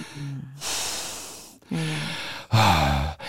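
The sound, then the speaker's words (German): A voice imitates loud, heavy breathing, like someone sitting next to you in a theater: three labored, noisy breath cycles, each a raspy voiced inhale followed by a long hissing exhale, exaggerated. “Ganz schlimm ist es, wenn, wenn jemand neben dir im Theater sitzt, der so atmet”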